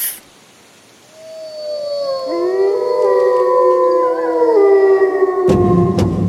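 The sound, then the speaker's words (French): A chorus of wolves howls together, several long wavering voices rising and overlapping into a sustained, layered wail that swells after a quiet start and stays loud to the end. “Le loup représente en effet l'un des plus grands prédateurs du Grand Nord.”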